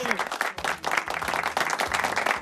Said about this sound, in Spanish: Fuerte el aplauso para, para ellos.